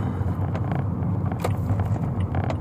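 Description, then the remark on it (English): A friend's car drives past, its deep engine and road noise filling the scene at an even, fairly loud level, with a few faint ticks on top and no voices. “Oh, that's my freaking friend's car. I cannot believe it.”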